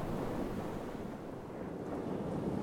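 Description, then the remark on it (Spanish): Steady ocean surf washes in a continuous, dense roar, waves rolling and breaking with a broad, rushing texture and no voices over it. “Mar.”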